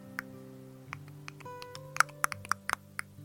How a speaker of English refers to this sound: No, that was me knocking the coconut.